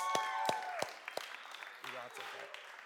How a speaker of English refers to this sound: Man, could we give those worship band a round of applause again, please?